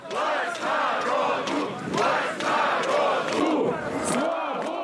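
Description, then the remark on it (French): A large crowd of thousands of protesters rallying in Russia chants in unison, many voices rising and falling in a steady rhythmic cadence, loud and dense throughout. “Des milliers de Russes se rassemblent partout dans le pays.”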